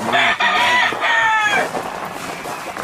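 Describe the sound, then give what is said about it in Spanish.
A rooster crows loudly in a long, strained call, followed by softer clucking from chickens, with no one speaking. “Este yo estoy yo aquí todos los días, estoy con mis gallinas”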